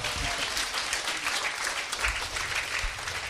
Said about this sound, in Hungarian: Again, another round of applause, please. Tapsoljuk meg őket.